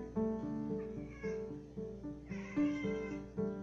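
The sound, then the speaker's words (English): An upset female cat looking outside meows insistently and loudly, giving about four or five drawn-out, agitated cries in quick succession with no talking over them. “I've never heard her act like this. But she's looking outside.”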